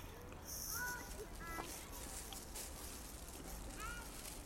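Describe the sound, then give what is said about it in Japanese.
Wet chewing and mouth noises continue steadily as someone eats soft neri-yokan (sweet bean jelly), with small smacking sounds and a few brief high squeaks, and no clear talking. “練りようかん食べながら話しようとしてるってことですなんかね人がもの食べてる音なんか不愉快でどうしようもないと思うんですけど脳がね糖分を欲しがってるんですものすごく体が疲れてるちょっとしばらく咀嚼音とかがね理解って申し訳ないんですけど”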